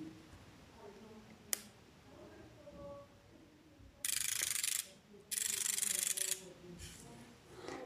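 A 20-character braille display is switched on with the power button on its back: one sharp click, then two bursts of rapid, dense pin clicking about a second each, fairly loud.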